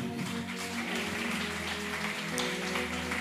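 Audience applause at a church service welcoming the pastor, a steady wash of clapping lasting a few seconds over a sustained musical tone with low bass notes underneath; no one speaks.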